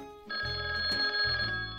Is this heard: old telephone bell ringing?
yes